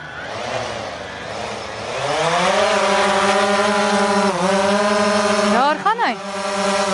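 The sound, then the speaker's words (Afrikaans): A drone takes off, its motors spinning up into a loud, steady whirring buzz with layered tones, then wobbling through a few quick pitch sweeps before settling again. “Ons sien nou, hoe lyk dit as hy opstyg.”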